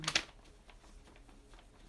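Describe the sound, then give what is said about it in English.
A sheet of paper being waved by a person fanning themselves: a crisp papery flap right at the start, then faint, soft rustles and whooshes, with no talking. “As I'm fanning myself with paper right now.”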